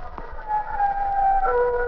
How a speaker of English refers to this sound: It was one of those clear, cloudless nights. But the winds moaned and howled like weeping women.